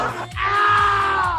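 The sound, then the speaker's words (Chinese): A loud, anguished scream sound effect, one long sustained cry holding a steady high pitch for over a second, with a faint rhythmic thumping beneath it. “听见没有？这就是惨烈的叫声，来，让叫声更明丽一下。”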